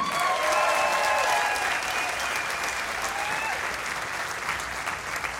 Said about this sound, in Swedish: Eh, på scenen, eh, jag tycker vi ger dem en varm applåd. Första gästerna i Raw Comedy-podden idag då, live på Silla Galaxy.